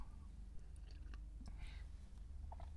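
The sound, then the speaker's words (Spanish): Quiet mouth noises of someone sipping coffee, with a few soft slurps and swallows over a low background rumble. Nobody speaks. “Pausa para trago de café.”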